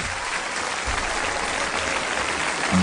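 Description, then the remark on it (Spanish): A studio audience claps steadily to welcome a guest author on a talk show, a dense, even wash of many hands with no voices over it, holding at a constant level throughout. “Muchas gracias eh, por, los aplausos y muchas gracias por la invitación”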